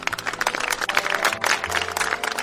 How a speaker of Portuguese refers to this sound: Palmas para ele.